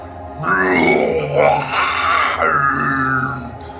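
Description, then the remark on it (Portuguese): A person's voice imitates the very deep, powerful, drawn-out roar of a large creature lasting a few seconds, loud, with a rough growling texture and a sweeping rise and fall in pitch. “Um rugido muito, muito, muito grave, cara. Poderoso.”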